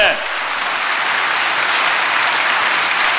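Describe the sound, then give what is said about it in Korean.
A church crowd claps steadily and loudly for about three seconds, applause offered to God, a dense wash of many hands with no pauses and no voices rising above it. “할렐루야 우리 하나님께 다시 한 큰 박수 한번 올려드립니다 아멘”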